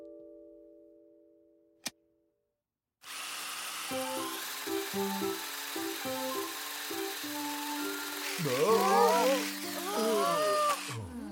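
A small remote-controlled quadcopter drone with four rotors buzzes steadily after a sharp click, its whirring motor pitch stepping up and down, with quick chirping squeals rising over the hum toward the end.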